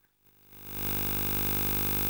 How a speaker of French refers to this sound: ça sonne comme ça. Ça, c'est le son du signal de la caméra. Plus un petit bruit derrière qui est vient d'une euh, mauvaise soudure peut-être.